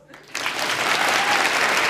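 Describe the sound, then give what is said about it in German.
Applause from an audience swells up after a brief quiet moment, a dense, steady wash of clapping hands that stays loud through the end. “Applaus!”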